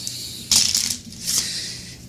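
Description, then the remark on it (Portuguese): Papery riffling and crisp rustling bursts of a deck of playing cards being shuffled come in two busy flurries over a steady faint hiss, with no one talking. “Veja se eu estou embaralhando.”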